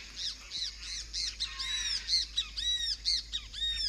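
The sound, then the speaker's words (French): Loud, harsh croaking calls from toucans repeat in a steady, rhythmic series, several raspy squawks overlapping, with no voices present. “Euh, les toucans aussi, les gros becs.”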